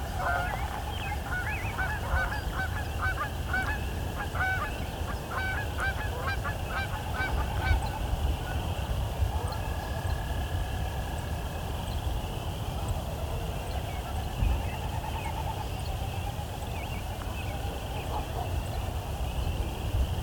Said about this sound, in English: There's our Wilson's snipe.